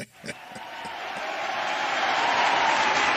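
crowd, audience cheering

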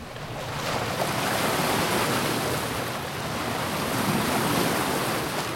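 nature, ocean waves and surf

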